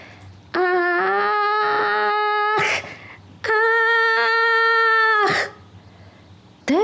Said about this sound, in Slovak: Zvuk každodenných ranných činností lesných obyvateľov prehlušil prenikavý nárek.